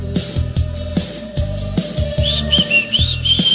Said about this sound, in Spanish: Un silbido cruza el pueblo